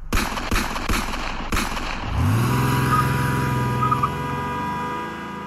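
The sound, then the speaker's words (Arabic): A car engine rumbles up and then idles steadily, following a quick burst of several sharp, loud bangs at the start: a white Cadillac slowing down alongside another car in Las Vegas. “وفجأة جنبه بتهدي سيارة كاديلاك بيضة وفي ايد بتنمد من شباكها وبلحظة”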